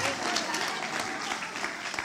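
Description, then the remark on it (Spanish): A church audience applauds the Lord in a morning service, loudly, a dense, steady wash of many hands clapping at once with no pauses, sustained throughout the short stretch. “Vamos a darle ese aplauso fuerte a Él en esta mañana.”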